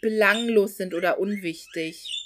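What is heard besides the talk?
budgerigars chirping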